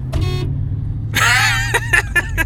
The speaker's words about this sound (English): He's honking the horn, making Brother Nathan in the back nervous.